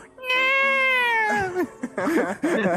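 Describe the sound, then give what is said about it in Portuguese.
A voice imitates a cat from a scene in the show Chaves, with one long, loud, drawn-out meow that slowly falls in pitch, followed by a few short, choppy vocal sounds. “Outro gato!”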